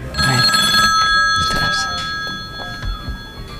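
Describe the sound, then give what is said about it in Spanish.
An old bakelite telephone, of the kind found in homes about half a century ago, rings continuously, a bright metallic jangle that fills the whole moment, loud, with faint voices and bumps beneath it. “Eran teléfonos de baquelita, que ya no se usan los smartphones, ¿no?”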